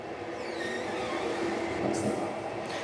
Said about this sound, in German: Im Zug ist um diese Uhrzeit schon nicht mehr viel los. Nur in einem Sechsabteil ist noch Licht.